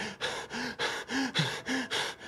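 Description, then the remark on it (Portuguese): A voice imitates the sound of their own rapid, heavy breathing: about six harsh, airy gasps in quick, steady succession, some with a faint voiced edge, fairly loud, with no talking. “Que era o barulho da minha própria respiração.”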